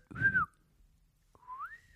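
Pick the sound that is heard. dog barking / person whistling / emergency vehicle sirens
person whistling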